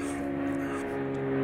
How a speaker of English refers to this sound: that's a plane going over my house. Can you hear that? Oh, that's loud. It's like right over my house. Life on the back porch, friends.